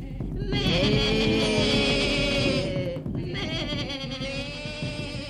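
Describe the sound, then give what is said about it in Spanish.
Sheep bleat loudly in two long, wavering calls, one after the other, over a busy low rumble as the flock and its shepherds run away at full speed. “Hasta que lo tiraron al suelo y entonces pastores y ovejas se alejaron a todo correr.”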